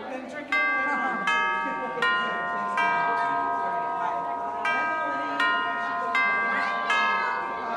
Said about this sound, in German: Stopp, stopp, stopp. Nicht die Klingel beendet die Stunde, sondern ich.